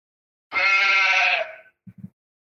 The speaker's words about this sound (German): Das war falsch um es zu erklären, was das Geräusch bedeutet hat.